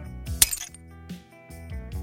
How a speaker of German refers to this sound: Anschließend haben wir uns die besten Klirr- und Aufprallgeräusche ausgesucht und sie in untereinander liegende Spuren gepackt. Um einen räumlichen Eindruck des Splitters zu bekommen, verteilten wir die Sounds kreuz und quer im Panorama.